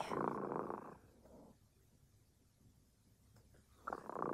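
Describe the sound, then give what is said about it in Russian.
A cat, Kot Dremota (Cat Drowsiness), purrs in rumbling, breathy cycles: a strong burst, a softer one, a long quiet lull, then another loud burst. “Слышите? Кот Дремота запел свою песенку.”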